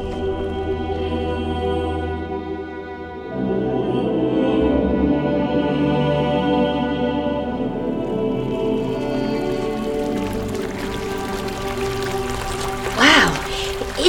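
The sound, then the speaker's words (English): Steady trickling and gurgling water of a small underground river in a cave runs throughout, echoing, with a brief louder splash near the end. “It's an underground river.”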